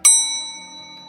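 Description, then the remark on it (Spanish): A single bright elevator bell ding strikes sharply and then rings out as the elevator goes from floor to floor, its clear metallic tone slowly fading over about a second with no voices present. “Tanto que el timbre del ascensor empezó a ocupar casi todo el programa.”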